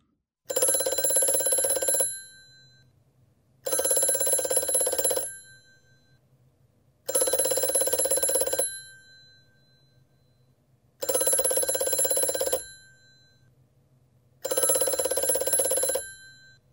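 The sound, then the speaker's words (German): A telephone rings five times in a steady pattern, each bright, loud burst lasting about a second and a half, separated by equal pauses with a faint low hum underneath and no voices; the call goes unanswered. “Hm, nee, aufs Klingeln reagiert er nicht.”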